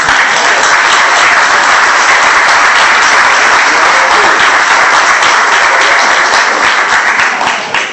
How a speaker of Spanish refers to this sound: un hombre que siempre pide aplausos para todos y que nunca hemos tenido la oportunidad de brindarle un homenaje y un, un aplauso profundo y caluroso